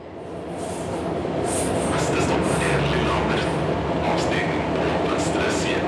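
A train travelling from Oslo to Lillehammer on 12 January 2011 rolls steadily along the rails with a constant low rumble and rattling carriage noise, punctuated by brief metallic squeaks and hisses, heard from inside the moving car.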